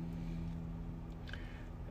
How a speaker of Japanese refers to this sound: 時刻は、え21時42分車の中からお届けしております。